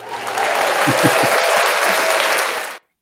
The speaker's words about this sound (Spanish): Espérate, déjame darme aplauso.